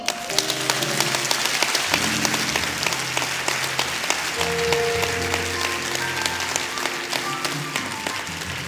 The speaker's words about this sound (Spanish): Por lo tanto, aplaudo al Señor.